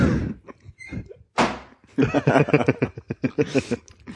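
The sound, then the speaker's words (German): A single mouth-made thunk imitating a door swinging shut, with a brief creaky lead-in, followed by a burst of rhythmic laughter from people. “Kannst du eine zuklappende Tür mit deinem Mund simulieren?”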